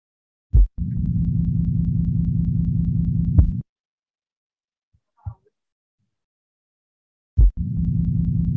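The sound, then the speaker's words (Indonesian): A pansystolic heart murmur: a sharp heartbeat thump followed by a steady, low rushing whoosh that lasts unchanged until the next heart sound, then a pause before the pattern repeats. “Nah, ini contoh dari pansistolik atau holosistolik murmur.”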